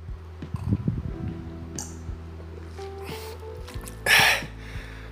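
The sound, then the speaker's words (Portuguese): Sounds of someone drinking water: a few soft, wet gulps early on, then a quiet pause and a short, breathy exhale after the last swallow, with a low hum in the background. “Tomando água aqui, bicho, porque a garganta tá foda.”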